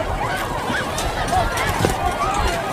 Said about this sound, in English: Okay, running for the exits. Now look. Okay. Do not run! Freeze! Do not run! There is no issue here! Do not run!